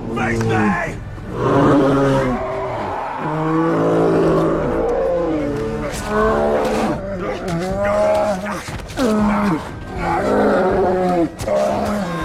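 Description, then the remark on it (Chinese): A brown bear roars and growls while attacking a man out walking with a child, with repeated loud, harsh, rumbling bellows rising and falling over several seconds, mixed with strained human vocal cries. “大海就在带着孩子遛弯的时候，遇到了熊的袭击。”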